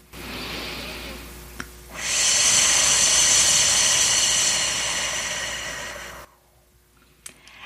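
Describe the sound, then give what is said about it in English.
A softer breathy inhale lasting about two seconds, then a long, loud, steady hissing exhale through the teeth that fades out, followed by near silence. A voice imitating a snake's hiss in a "snake breath" breathing exercise for kids. “one that comes to mind is snake breath, um, and it's something that kids can do as loudly or as softly as they prefer, and it would just be an inhale, and then the exhale is what's going to sound kind of like the hiss.”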